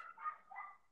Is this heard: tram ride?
no